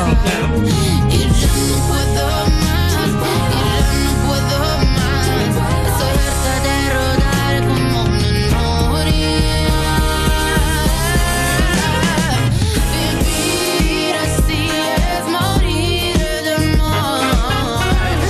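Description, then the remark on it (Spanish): A full-band pop ballad, a cover of a 1978 Spanish classic song, plays loud for the whole stretch, with sustained melodic lines over a steady rhythm section and no talking on top. “Es una versión de un clásico español de 1978”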